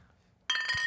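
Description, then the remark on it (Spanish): Glasses clink together in a toast, a sudden bright ringing chime that starts partway through and lingers, fairly loud after a quiet moment. “Salud, chicos.”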